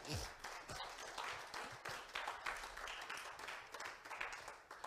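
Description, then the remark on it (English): A church audience claps their hands together as a hand clap of praise to God, in a dense, steady burst of applause that fills the whole stretch, many overlapping claps blending into a continuous crackle, with faint voices mixed in underneath. “If this message has sparked your heart and given you faith, can you give God a hand clap of praise in the building?”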